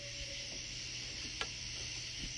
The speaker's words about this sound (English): You can hear all the crickets.